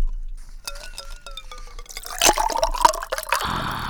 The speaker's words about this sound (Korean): 아, 이게 물에다 얼음 넣고 지금 물 따르는 소리입니다. 네, 청량한 소리죠. 시원한 소리입니다.